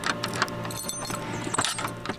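A bunch of keys jingles and scrapes as they unlock the door of a warehouse, with bright metallic rattles and a few sharper clicks over two seconds, fairly loud and with no one talking.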